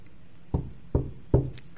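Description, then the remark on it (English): Three firm knocks on a wooden door, evenly spaced about a beat apart, moderately loud against a quiet background. “In verse 25, they will stand out knocking repeatedly knocking.”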